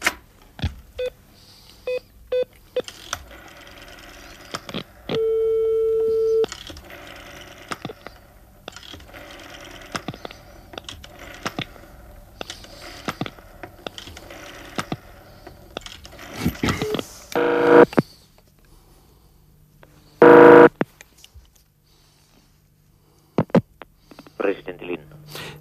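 A radio news reporter picks up a telephone handset at seven in the morning after an election and dials a number to call the President of the Republic, with clicking mechanical sounds and a steady tone, followed by loud bursts like a ring signal. Light handling noises surround it, no talking.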